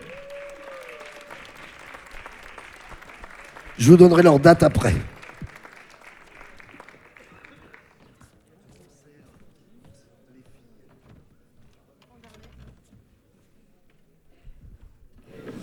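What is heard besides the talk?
audience applause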